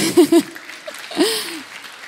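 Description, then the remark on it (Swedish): An audience applauds the worship singers after their song in a steady, moderately loud wash of clapping, with a couple of short vocal whoops near the start and a longer cheer rising partway through. “Ge dem en applåd.”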